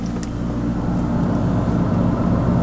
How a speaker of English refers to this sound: And now, now there the compressor. the compressor just kicked in. Okay, here's the compressor starting up.